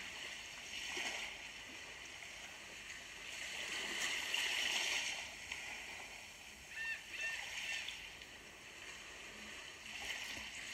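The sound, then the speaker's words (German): Gentle sea waves lap softly in a steady, quiet wash, with slightly fuller swells and small splashy ripples rising now and then before settling back into a calm murmur. “Die Möwen fliegen weiter und du hörst die ruhige Bewegung von den leichten Wellen.”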